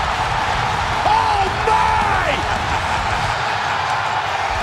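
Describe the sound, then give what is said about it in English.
A huge wrestling arena crowd at the Royal Rumble roars continuously for Edge, loud and dense, with screams and cheers blending together and a few drawn-out yells rising above the din in the first couple of seconds. “and Watch well. people scream at Edge again.”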